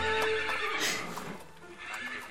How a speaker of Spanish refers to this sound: ¿Oyes? Un carruaje. Ha llegado el primero de los invitados.